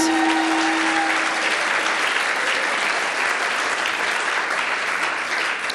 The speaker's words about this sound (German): Komm, wir geben ihm im ganzen Pool mal Applaus.